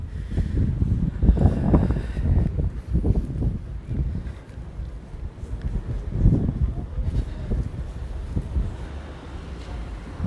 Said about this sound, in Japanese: ちょっともう雨がすごい